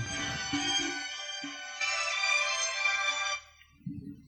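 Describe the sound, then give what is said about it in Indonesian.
A phone ringtone plays loudly, a bright melodic tone sustained for several seconds with a brief dip midway, then cuts off; low rumbling noises sit beneath it. “Eh ada telepon.”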